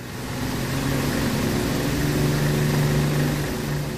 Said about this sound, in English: It was just a continual roar. The engine would go. That was there all the time.